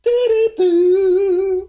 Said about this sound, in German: Das war der Jingle. Danke an Endemol, dass, dass wir den benutzen dürfen.